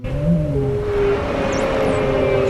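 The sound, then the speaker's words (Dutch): A voice imitates a whale call with a long, steady, droning moan whose low pitch shifts slightly. A thin, high, swooping squeal rises and falls midway through. There are no words. “Volgens mij doet een walvis zoiets als...”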